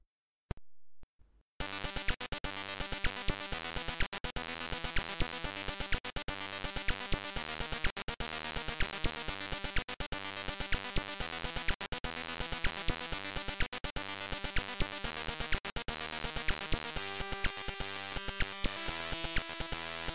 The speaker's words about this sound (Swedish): Men så här lät det när han kompade till ZX Spectrum då. ATV simulator.